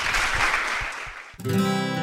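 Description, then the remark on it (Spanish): A crowd claps and applauds itself at the close of a Radio Abierta broadcast, a steady, dense wash of noise for over a second, then the clapping cuts off and a music track with sustained tones begins. “Un aplauso para ustedes mismos.”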